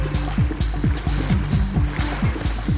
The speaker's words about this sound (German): Das Schiffchen schaukelt. Hoffentlich kippt es nicht um.